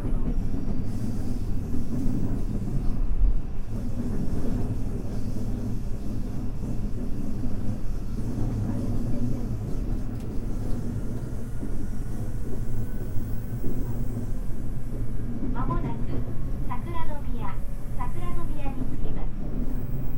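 A steady, loud rumble of a JR West 323 series commuter train running on the outer loop of the Osaka Loop Line from Osaka to Tsuruhashi, heard from on board, with wheel squeals rising briefly near the end.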